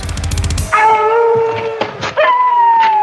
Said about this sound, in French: Qu'est-ce que c'est c'est des loups.